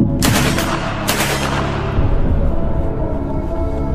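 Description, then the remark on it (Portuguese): Two loud gunshots crack about a second apart, each a sharp blast followed by a long echoing rumble that fades into a low, steady background roar. No voices. The shot is fired from the forest at a man returning by steamer on the Iguaçu. “Anacleto, o degolador, morreu no mesmo dia, quando retornava com o vapor no Iguaçu e um tiro vindo da mata atingiu seu peito.”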